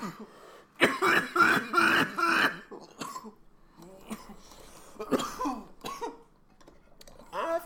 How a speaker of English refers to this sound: got the dab coughs. I've got the dab coughs because I fucking hurt.